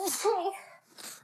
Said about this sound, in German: Ich muss niesen.